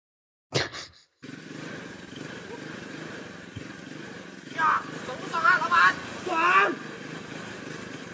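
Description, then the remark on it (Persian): A motorcycle engine runs steadily, a continuous rumbling drone, with voices briefly breaking in over it near the end. “این یه موقعی ممکنه شما به حمام و سشوار دسترسی نداشته باشید ولی یه موتورسیکلت داشته باشید”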